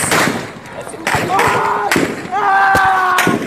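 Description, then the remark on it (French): Several sharp, loud gunshot cracks ring out at irregular intervals in a volley as Sudanese forces advance on a crowd of protesters in Khartoum, Sudan, while people shout and cry out in the background between the shots. “La confusion règne, puis des coups de feu retentissent.”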